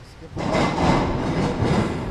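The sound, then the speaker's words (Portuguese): A Maritime Police (Polícia Marítima) launch's engine starts up after a brief quiet moment, jumping straight into a loud, steady, rumbling roar with a rough, churning texture that holds to the end, as the crew sets off at high speed after suspicious vessels. “O motor da lancha da Polícia Marítima começa a trabalhar.”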